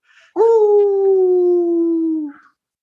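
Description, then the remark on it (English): A person imitating a dog lets out one long, loud howl, a steady droning note that sags slightly in pitch over about two seconds before cutting off, with no talking. “Went back to the howl.”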